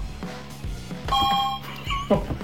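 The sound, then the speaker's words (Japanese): The Ultra Hat, the answer buzzer hat from the TV quiz show America Odan Ultra Quiz, goes off when pressed: a bright, steady electronic tone rings for about half a second amid handling noise and faint background sounds. “これなんでなんウルトラハットウルトラハットですよアメリカ横断ウルトラクイズのウルトラハットですよ その音ですよね音これ”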